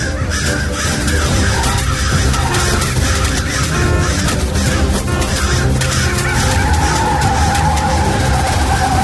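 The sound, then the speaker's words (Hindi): Loud, sustained screech of a car's tires skidding across pavement in an accident, continuous for several seconds with a harsh, noisy texture and no voices. “कौशिक अपनी बात पूरी कर पाए उससे पहले ही गाड़ी का सचमुच एक्सीडेंट हुआ”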